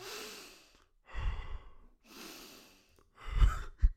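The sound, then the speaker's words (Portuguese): A voice imitates the breathing heard among naked people where nobody talks: four slow, raspy breaths alternating airy inhales with harder, gusty exhales, with no talking. “Está tudo nu, ninguém fala e só se ouve as respirações, assim.”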